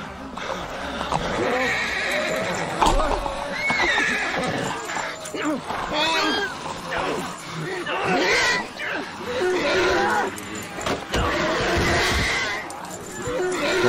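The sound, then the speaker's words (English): Horses neigh and whinny again and again, loud and agitated, in the scene of Darabont's TV pilot where a horse is devoured, over a dense, chaotic din with occasional hoof clatter mixed in. “They did not like having a horse devoured on television.”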